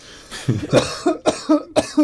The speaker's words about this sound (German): So, so intensiv das fake geheult, dass ich husten musste. Oh Gott. Das ist die, die feuchte Kellerluft da.